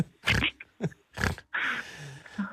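A person makes a series of rough, pig-like grunts: three short snorting bursts, then a longer drawn-out grunt and a brief final one.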